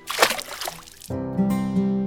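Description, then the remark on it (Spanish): A small crab missing one claw is tossed back into the water by a boy, with a brief splash and some sloshing, quickly followed by sustained, steady musical tones that continue to the end. “No nos sirve y el niño lo devolvió al agua.”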